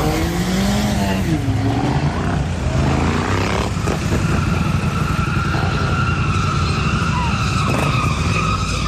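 Car tires screech and skid loudly and continuously during an illegal street race (a "run") in a commercial zone, with wavering squeals over a roaring engine and dense road noise, with no talking.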